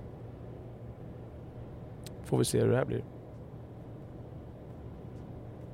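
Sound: car interior ambience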